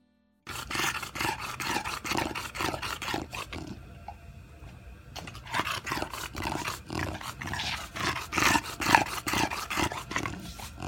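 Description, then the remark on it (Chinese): A dog makes rapid, rhythmic snorting breaths with a raspy, obstructed quality, caused by its soft palate blocking the airway, each pulse broad and noisy, continuing steadily with a brief quieter pause partway through. No one speaks. “那其实这个这个声音，它是软腭阻塞在气道的声音，这个在人是不会发生的。”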